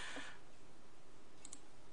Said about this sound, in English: You keep track no, of this one because I'm I'm tired of typing.